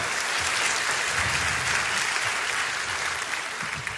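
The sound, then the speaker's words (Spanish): Steady applause from a group of people, dense clapping that holds at an even level for the full four seconds with no voices rising above it. “pero le han, le ofrecido un aplauso y se lo lleva.”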